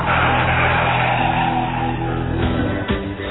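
A car engine roars and revs loudly, steady throttle with slight surges, continuous for a few seconds with no voices.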